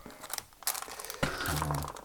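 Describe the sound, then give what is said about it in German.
Packaging is crumpled as an item is repacked, crinkling and crunching in a burst of irregular rustles, with sharp crisp snaps around the middle and a steadier rustle toward the end, moderately loud with no talking. “Der ist wieder so. verpackt.”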